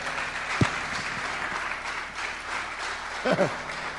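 Steady audience applause fills the whole stretch as a dense, even wash of many hands clapping, with a brief vocal outburst early on and a short voice rising over it near the end.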